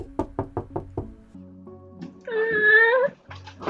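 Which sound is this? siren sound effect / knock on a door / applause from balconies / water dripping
knock on a door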